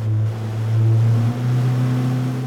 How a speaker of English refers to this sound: So we're coming up on uh, Bayview Hunters Point. With the tips of downtown buildings soaring behind us, … is showing me the old naval shipyard from a boat on the bay.